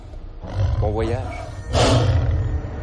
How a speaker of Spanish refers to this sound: pero teniendo en este castillo un animal tan velo y tan hambriento. En el foso hay un gran tigre.